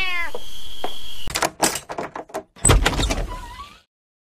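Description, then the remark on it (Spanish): A cat meows, a short, wavering cry, amid the clatter and scrape of a door opening, followed by a brief, higher mew near the end. No one speaks. “¿Y ese gato? Está precioso.”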